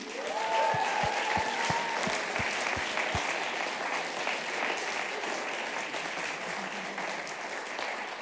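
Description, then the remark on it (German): A crowd claps steadily and loudly throughout, a dense wash of applause with a few brief whistles or cheers near the start and no speech over it. “Ähm, damit ich jetzt mich nicht um Kopf und Kragen äh, rede, würde ich sagen, lass nochmal den Leuten einen fetten Applaus äh, geben.”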